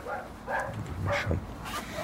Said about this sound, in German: Wir klingeln. Innen bellt ein Hund, aber es öffnet niemand die Tür.